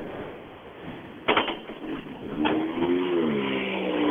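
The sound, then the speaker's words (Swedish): A rally car engine revs over steady rushing noise, with a couple of sharp bangs early on, then a rising, wavering engine note that holds loud to the end. “fräna bilar här nu.”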